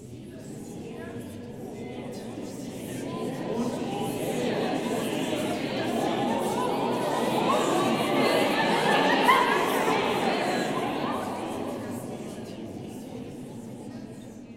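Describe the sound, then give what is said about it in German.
A choir's meticulously choreographed babble of many overlapping voices in a choral work swells gradually to a peak and then eases back, a continuous murmuring of indistinct talk with no clear words standing out. “Wo wohnt die Seele ist ein bis ins letzte Detail durchchoreografiertes Stimmengewirr”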